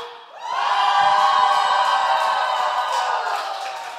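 An audience breaks into joyful singing and shouting together, swelling quickly into a loud, sustained mass of sound that holds steady for several seconds before easing slightly.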